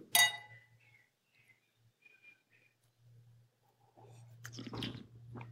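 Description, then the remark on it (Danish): A bright glassy clink of glasses raised in a toast rings out at the start and fades with a shimmering ring, followed by soft rustling and a louder clatter of glassware near the end over a low hum. “Skål. Skål.”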